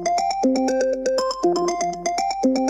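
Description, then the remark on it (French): A telephone rings on Christmas morning with a bright, melodic electronic ringtone, a quick sequence of tonal notes repeating steadily and fairly loud, with no voices over it. “matin de Noël, le téléphone sonne.”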